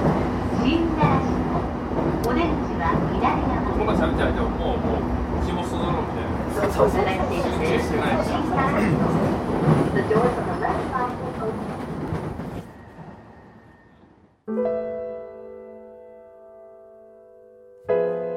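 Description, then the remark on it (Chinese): Steady, loud rumble and clatter of a crowded evening commuter train running from Chiba to Tokyo, Japan, with murmuring voices, easing off before a bright, sustained electronic chime rings out near the end. “从千叶到东京，列车大致需要四十分钟车程。上车的乘客大多都是满脸半泽直树的疲惫，没有见到大门未知子的活力。”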